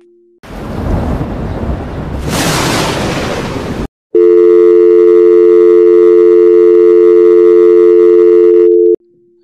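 A loud burst of crackling noise like a storm breaks off abruptly, followed by a steady electronic tone from a dropped phone line, droning for about five seconds before cutting out.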